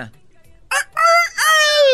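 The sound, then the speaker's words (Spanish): A rooster crows loudly in a ranch corral very early in the morning, serving as a wake-up alarm, a single long cock-a-doodle-doo with a rising, strained middle and a drawn-out final note, with no talking. “Muy temprano se oye cantar un gallo en el corral.”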